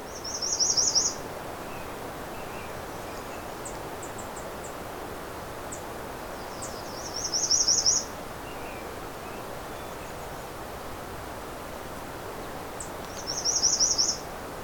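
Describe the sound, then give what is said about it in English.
An American redstart sings three loud, high, buzzy phrases spaced about six seconds apart, standing out clearly over a steady outdoor hiss with faint chirps in between. “This may be one of the loudest redstarts I've ever come across.”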